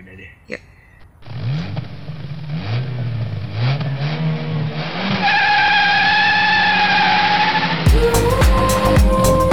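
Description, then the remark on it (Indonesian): A car engine revs up with rising whines and tires screech loudly as it pulls away, the squeal growing steady and shrill before a burst of louder engine noise at the end. “ya udahlah yuk pergi yuk bawa mobil aku aja”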